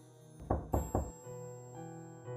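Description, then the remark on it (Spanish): Three quick, solid knocks by a doctor on a door in a hospital, evenly spaced, followed by a quiet lingering tonal hum in the background with no voices. “Ese debe ser el doctor. Me acerqué a la puerta y ahí estaba el doctor con su chaqueta blanca de hueso recién limpiada, con un aspecto muy similar al de un fantasma.”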